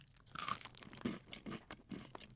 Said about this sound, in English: open them up and let's start munching.